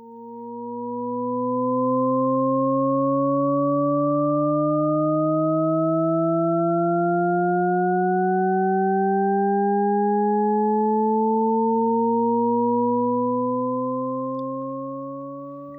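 shepard tone auditory illusion

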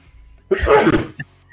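sneeze

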